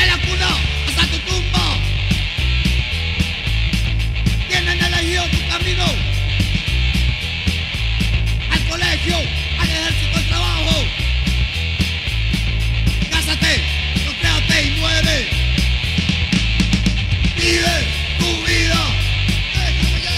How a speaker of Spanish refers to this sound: dame gusto con este hardcore 1996, retrobar frente a Monterrey, tira y …